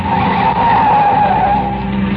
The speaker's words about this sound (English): In my ears was the screeching of brakes, of tires taking a wild curve.